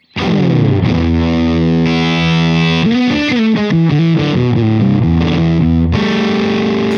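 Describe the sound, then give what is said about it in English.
A heavily distorted electric guitar demonstrates the last of several effects presets, playing sustained chords and a quick run of notes, thick and saturated with gritty overdrive, loud and alone with no talking. “The last preset is called Nasty, and you can probably guess.”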